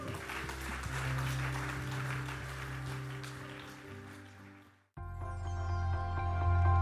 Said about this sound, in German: Amen. Lass uns Gott mal einen Applaus geben.